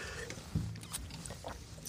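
Wine being poured into a glass, a soft, steady liquid gurgle and splash that carries on for about two seconds at low volume, with no one speaking.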